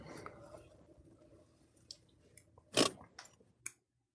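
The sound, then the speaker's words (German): A car handbrake being pulled, heard as a short series of sharp clicks with one louder harsh ratcheting rasp in the middle, over a low murmur of background noise. “Das ist meine Handbremse.”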